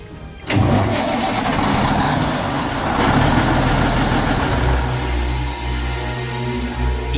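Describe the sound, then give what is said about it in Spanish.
A large engine, from the opening of Steven Spielberg's early-1970s film Duel (El Diablo sobre Ruedas), cranks and catches with a sudden roar, then settles into a steady, loud rumble that keeps running for several seconds with no voices. “Toda la carrera de Spielberg empieza con ese ruido de motor arrancándose a principios de los 70 con la película El Diablo sobre Ruedas, que era esta película donde un camión enorme persigue un coche”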